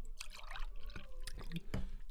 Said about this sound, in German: So, ich fülle jetzt mal mein Glas nach hier.